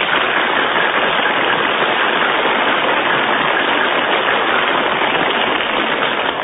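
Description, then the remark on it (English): An audience applauds for contestant number three in a contest judged by an applause indicator: a dense, loud wash of many hands clapping that holds at an even level throughout, with no voices heard over it. “Your applause for number three, Mrs.”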